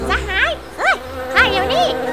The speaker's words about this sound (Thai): ในวันหนึ่ง ขณะที่กำลังรอช้างเดินผ่านมานั้นมแมลงวันก็ได้บินไปตอมซากหนูที่เสียชีวิตอยู่ที่พงหญ้า